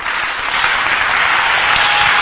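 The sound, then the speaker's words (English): An audience clapping steadily, a dense, continuous wash of many hands filling the whole clip at a fairly loud, even level, with no voices standing out. “Even your clapping should be better than what you're doing.”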